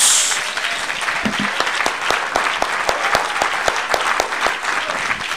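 An audience applauding for the Lord, many hands clapping in a dense, sustained burst at even loudness for several seconds, with a faint voice briefly audible near the start.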